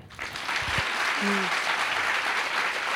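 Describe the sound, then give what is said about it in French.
An audience at the Alhambra breaks into applause, a dense, steady wash of clapping that swells quickly and holds at a fairly loud level, with a brief low voice murmur near the start. “Je crois que ça s'applaudit.”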